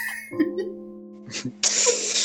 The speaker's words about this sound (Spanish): que parte de eructar el micrófono no entendiste.